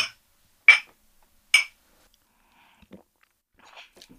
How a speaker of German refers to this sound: Äh, wenn wir zuerst anstoßen. Sehr gerne.